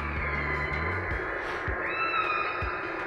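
A high, drawn-out mewing call from a baby whale rises and wavers like a kitten's cry, heard through a steady wash of underwater noise with low thumps beneath.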